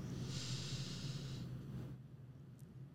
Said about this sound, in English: okay so close your eyes and if you're listening and it's safe to do so close your eyes ready take a deep breath